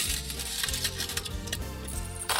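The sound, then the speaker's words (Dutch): Coins clatter and jingle as they're tossed back into a machine, a dense run of metallic clinks and small cracks over a steady mechanical hum, fairly loud. “ga ik eerst even de muntjes teruggooien. Want dat, moet ik natuurlijk het live doen”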